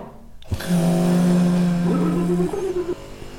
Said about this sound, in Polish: Poczekaj, to ekspres.